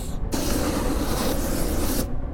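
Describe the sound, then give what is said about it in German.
A loud, steady roaring whoosh of a 'holy' flamethrower fed with holy oil of Antioch bursts on abruptly, holds with a broad hissing rush for about two seconds, then cuts off sharply. No one speaks. “Das ist ein heiliges Feuerflammenwerfer!”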